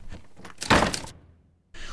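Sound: door being shut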